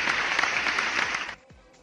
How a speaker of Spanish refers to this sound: Pónganle unos aplausos, por favor.